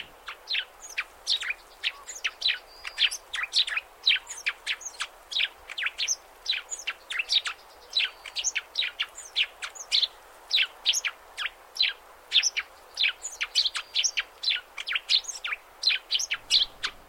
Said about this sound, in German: Ja, ja, auch das kann ein Gesang eines Vogels sein, in dem Falle des Vogels der Woche, des Feldsperlings, den ich übrigens total sympathisch finde.